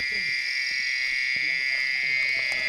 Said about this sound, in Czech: Nevím, jestli ze země nebo z křoví, jestli to kouše, jestli nám to skočí za krk. V té tmě těžko říct. A teď se skloňte. Krtonožka, krtonožka, krtonožka. To je krtonožka